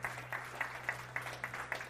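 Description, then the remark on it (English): An audience applauds after a prayer, with clapping that falls into a fairly steady, quick rhythm, over a low electrical hum and no talking. “Let's give a hand clap for those that have said that prayer.”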